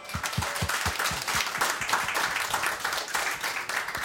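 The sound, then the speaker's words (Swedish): A small crowd applauds a song steadily for about four seconds, dense overlapping claps at an even level with a few sharper individual claps standing out near the start. “Applåd för den.”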